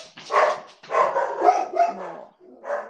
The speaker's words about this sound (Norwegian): Hører hundene dine? ja. Koselig.